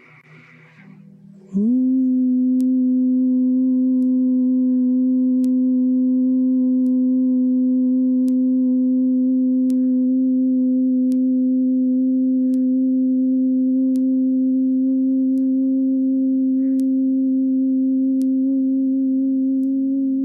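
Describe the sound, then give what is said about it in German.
A single long, steady hum held on one low pitch for nearly twenty seconds, a voice imitating the drone of a buzzing bee through a sustained exhale, in Brahmari (bee) pranayama breathing during a yoga session. It begins abruptly after a brief soft sound. “Innere Ruhe durch Bienensummen // Brahmari Atmung Pranayama”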